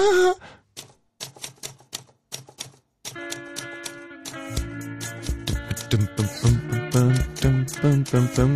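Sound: typewriter typing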